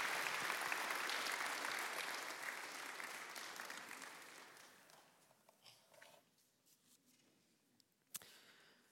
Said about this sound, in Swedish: Ska vi ge en varm applåd